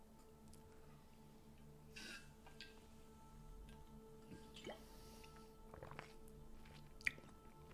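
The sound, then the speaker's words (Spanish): Someone quietly sips a shot of water: a few soft slurps, gulps and wet mouth clicks spread over several seconds above a faint steady hum, with no talking. “Chupito de agua.”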